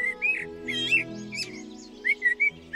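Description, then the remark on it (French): A blackbird crossing a garden at dusk calls with a series of short, bright chirping notes in irregular bursts, over a steady low droning hum in the background. “Un merle traverse le jardin en criant, l'air très en colère, comme un reproche au jour qui s'apprête à disparaître.”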